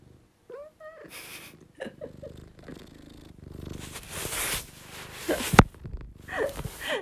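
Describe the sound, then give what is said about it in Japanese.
A cat, Chii-chan, purrs in a steady, low rumbling drone, with a short meow near the start and scattered rustling and handling noises, including one sharp click. “皆様猫のハゲゴロ音は人間の自律神経を整えるとも言われております是非お楽しみください”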